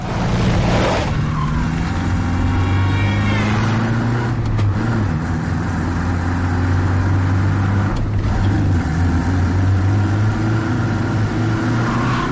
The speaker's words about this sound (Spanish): El Diana adelanta al tractor que lleva delante y Pedro emprende una persecución.